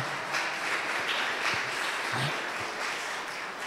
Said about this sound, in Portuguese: E se você crê nisso, aplauda Jesus, irmão.